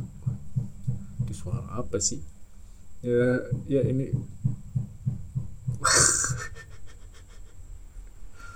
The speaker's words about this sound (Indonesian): malu apa coba itu jam 21.52 gitu mau jam 10 gitu ngapain itu malu-malu tuh tuh lagi ngepalu cuy malu malam gitu